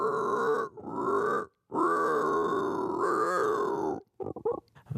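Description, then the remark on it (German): A man who can imitate over 200 animal voices imitates a pig, making long, loud, rumbling grunts in a few sustained bursts, ending with a quick series of short snorting grunts, with no talking. “Er kann zum Beispiel grunzen wie ein Schwein und vieles mehr.”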